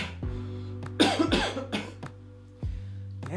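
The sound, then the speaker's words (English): A harsh, rasping smoker's cough erupts in a few rough bursts, with a steady low hum underneath and no talking. “I sound like a fucking 85 year old smoker.”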